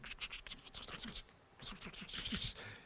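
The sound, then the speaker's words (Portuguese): A small candy wrapper is opened slowly rather than quickly, giving slow, drawn-out, fairly quiet crinkling. It comes in two long stretches of crackly rustling with a short pause between them. “Ou a pessoa, voltando para o cinema, ou a pessoa que, ao invés de abrir a balinha rápido, ela abre assim, parece que está torturando todo mundo dentro do cinema.”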